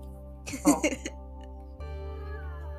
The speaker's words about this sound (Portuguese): é a minha gatinha. E ela está brincando com as minhas coisas aqui.